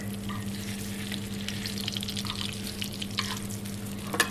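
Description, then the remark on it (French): A pan sizzles steadily with dense crackling and spitting, continuous, with occasional louder pops as hot fat is spooned over food in a generous basting; no one speaks. “Alors ce bruit, c'est vraiment ce qui fait que sur un bel arrosage.”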